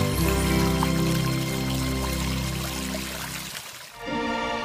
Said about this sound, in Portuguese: Olha só, essa vinheta que passou agora é a mais especial, é a mais linda. Por ser a voz da minha esposa, uma voz extraordinária, uma voz maravilhosa.